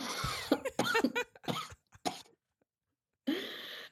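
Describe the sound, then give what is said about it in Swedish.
A run of harsh coughs in quick succession, loud and bursty, followed by a pause of near silence and then one more rough cough or throat-clearing sound. “Och jag ville verkligen inte hosta så jag bara, jag kan inte hålla mig längre.”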